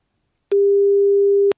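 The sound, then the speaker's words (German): A single steady ringing tone of an outgoing phone call, one clear beep about a second long, loud, beginning and ending with faint clicks, with no voices around it. “Gehst du schnell ans Telefon?”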